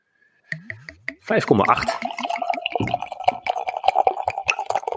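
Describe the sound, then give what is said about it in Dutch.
Extraordinary Hoppy Pale Ale beer glugs and splashes as it is poured into a glass, a steady stream with bubbly fizzing and a few clinks at the start. “Nou, ik ga hem ook even ingieten.”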